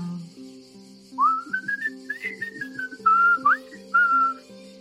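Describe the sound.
Fairly loud human whistling mimics a bird: a rising slide into a warbling run, then two short held chirpy notes, all over a faint steady droning tone in the background.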